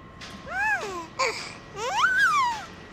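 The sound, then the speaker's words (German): A baby brought into a studio babbles in two short bursts of rising and falling coos separated by a brief pause, with a quiet hiss underneath and no adult voices. “Und was hat das mit diesem Baby auf sich, das du da mitgebracht hast?”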